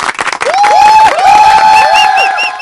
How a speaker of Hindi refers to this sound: और हमारे लिए प्राउड वाला मोमेंट तो एक जोरदार तालियां यहाँ पे